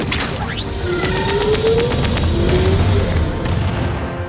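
A rapid barrage of cannon blasts from a battery of cannons revealed in a spaceship's hull, firing at a swarm of grey fighters: loud booming shots in quick succession over a dense, rumbling roar, with sweeping whines and no voices.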